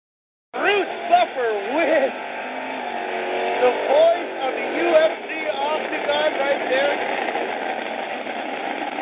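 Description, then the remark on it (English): A trophy truck engine at a race qualifying idles roughly with irregular pops and sputters, heard through a narrow, broadcast-like sound while a voice talks over it. “That's not going to go very far. That's not a pretty sound. You hear that popping?”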